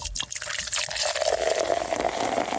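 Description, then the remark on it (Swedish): Mariestad beer being poured into a double-walled thermo glass: a steady liquid stream splashes and fizzes, the pitch of the filling glass rising as it continues for a couple of seconds. “Ja, det ska ju hällas upp i ett sånt här termoglas då, som har dubbelväggar då, som gör att den håller kylan så länge.”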